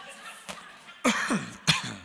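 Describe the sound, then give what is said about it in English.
A person coughs a few times: a faint short cough first, then two louder, raspy bursts about half a second apart, with no talking. “She didn't cough after she told me that.”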